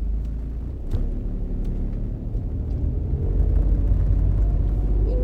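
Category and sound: vehicle, car interior rumble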